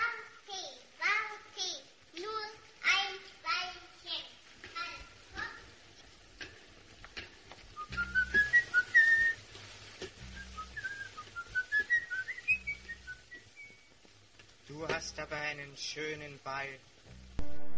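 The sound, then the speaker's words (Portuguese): In a horror film, a male child-killer character whistles a short melodic tune of several rising and falling high notes, moderately loud, framed by stretches of a person talking before and after. “ele começava a assoviar uma música”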